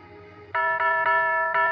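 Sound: doorbell chime ringing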